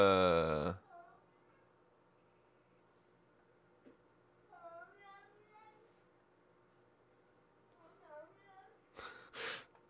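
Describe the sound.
Faint, strained retching noises like a cat about to vomit come in short wheezy bursts, framed by a loud harsh sound at the start and a sharp noisy gasp near the end.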